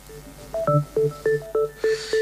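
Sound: phone message notification tone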